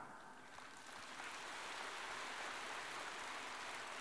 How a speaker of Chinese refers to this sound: 看见吗？稍微给你们讲了佛法深一点，鼓掌声音就这么轻。现在鼓掌的声音响，也是装的